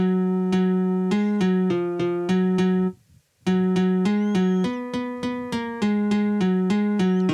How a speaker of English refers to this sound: It just doesn't have the same sort of roll to it uh, without without those uh, 16th notes in there. I mean, either way, the melody sounds dumb when it's on a MIDI nylon string guitar.